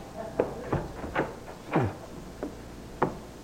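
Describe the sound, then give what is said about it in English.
Several irregular knocks or thumps at a door, moderately loud, with short gaps between them and no one speaking. “I think that's someone at the door.”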